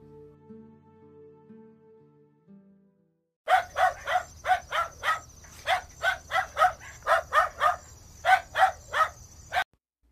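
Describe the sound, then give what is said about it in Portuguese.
A dog barks loudly in a quick, steady run of about fifteen or more barks, with a continuous insect-like chirping in the background and faint low tones before the barking starts. “O cão conseguiu escapar e, como o burro, queria também formar uma banda.”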